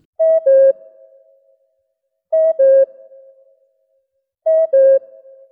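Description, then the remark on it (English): A radio station's two-note cuckoo interval signal, high then lower, repeats three times at steady intervals of a couple of seconds, used to fill time before the hour. Each pair is loud and clear with a short ringing tail, alone without any talk. “If a song ended, say, a minute before the hour, they'd fill the time with a minute of cuckoos.”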